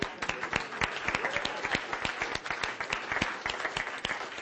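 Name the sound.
audience clapping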